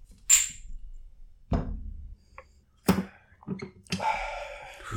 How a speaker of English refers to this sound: All right, y'all ready? Yep. Cheers. Yeah, let's do it. Tink. Cheers.